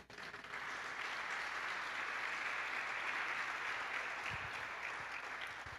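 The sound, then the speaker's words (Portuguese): A crowd claps steadily for several seconds, applauding the word of the Lord, a dense, sustained wash of applause that stays loud throughout before easing slightly at the end. “Aplauda a palavra do Senhor, querido.”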